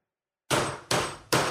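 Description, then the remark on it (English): Three sharp wooden gavel strikes in steady succession, each a loud crack with a brief ringing decay, after a short moment of silence. “This is the sound of a gavel.”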